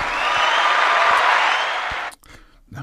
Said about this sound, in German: Ein extra Applaus.